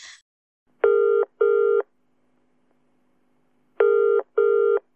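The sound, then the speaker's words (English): A telephone ringing tone on a call to the Museum of Stories line in Bury Park, Luton, sounds twice in the classic double-burst pattern, each pair of short, steady electronic buzzes clear, separated by a pause of quiet line hiss. No one speaks. “Thank you for calling Museum of Stories, Bury Park, Luton. Please leave your story after the tone.”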